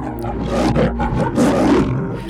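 A lion roars loud and close, a deep, rumbling growl that swells in two throaty surges over a couple of seconds, with no voices present.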